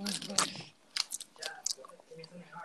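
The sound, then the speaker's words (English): Chewing of milk chocolate raisins: a handful of soft, irregular crunchy bites and moist mouth sounds, fairly quiet, with no talking. “Oh my god, this is well nice. Milk chocolate raisins”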